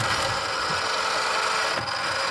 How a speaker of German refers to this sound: Dann ruft er die Betriebszentrale an, lässt die Weiche von einem Kollegen in Pankow per Mausklick bewegen.